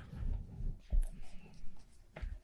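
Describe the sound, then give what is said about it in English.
A book is opened and its pages are handled: soft rustling and shuffling paper with two dull thumps, one near the middle and one near the end, and no talking. “As I crack open American Marxism”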